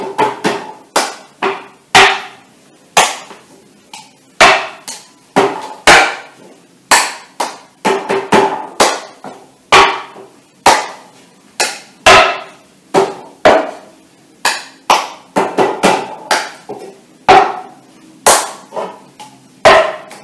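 Rhythmic hand claps mixed with duller body-percussion slaps from a clapping-game challenge, repeating a short pattern several times in a row with no talking. The sharp hits come steadily and grow quicker and denser toward the end.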